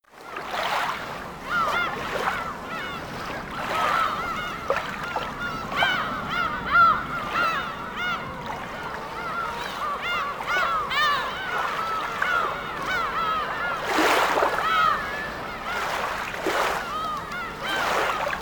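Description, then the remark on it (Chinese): Seagulls at the seashore calling to their companions in a steady stream of squawking cries, with a broad wash of surf and waves rushing underneath throughout. “听，海鸥在召唤同伴呢。”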